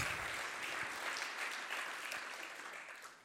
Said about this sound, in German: Ja, bevor wir starten, hey, ein riesen Applaus an unsere Band, oder? Mega mäßig, Hammer. Vielen, vielen Dank euch.